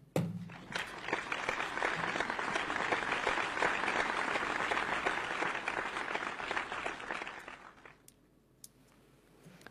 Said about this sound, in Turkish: O yüzden anneanneni burada en güzel şekilde analım ve alkışlarımız anneannene gelsin